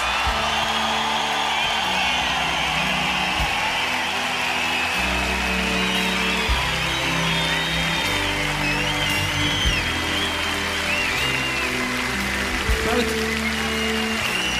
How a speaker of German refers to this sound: Dank für die wahnsinnige Erfahrung mit diesem wunderbaren Orchester, das Berner Symphonieorchester. Geben einen großen Applaus.